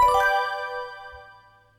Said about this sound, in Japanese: ピンポン